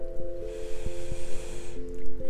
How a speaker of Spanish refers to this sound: Ahora vamos a tomar una respiración profunda. Inhalando por nuestra nariz con fuerza.